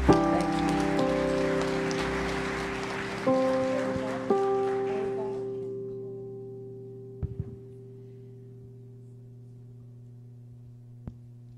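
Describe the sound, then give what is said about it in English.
An audience claps together in a dense, steady wash of applause that thins out and fades after about five seconds, while sustained keyboard chords ring on underneath and continue alone. “Lord a hand clap right now.”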